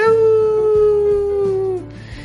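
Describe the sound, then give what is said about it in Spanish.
A single long, wolf-like howl from a human voice imitating the howl heard at Lobos home football matches in Mexico, loud, holding a steady tone that slowly sinks before cutting off, with a low murmur underneath. “O sea, el aullido, yo me acuerdo que vi un partido de los Pumas contra los Lobos y a cada rato estaba el...”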